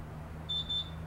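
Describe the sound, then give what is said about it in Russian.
A kitchen timer gives a bright, high-pitched electronic beep, two short tones in quick succession over a low steady hum, with no one speaking, signalling that dough waiting in the fridge is ready to be rolled out and baked. “да, это, этот знак означает, что тесто, которое ждет нас в холодильнике, оно уже э, подошло, настал его час.”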